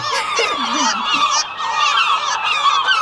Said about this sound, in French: Alors euh, c'est le, apparemment c'est le Rissa tridactyla, le vrai nom, le vrai nom de la mouette. Euh, enfin, en tout cas, j'ai trouvé une espèce de mouette.